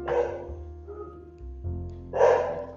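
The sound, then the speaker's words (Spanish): A dog barks twice at the speaker's home, the two barks separated by a short pause, moderately loud over a low steady background hum. “pues por el ruido que estoy en mi casa y pues qué perro se escucha como mucho ruido”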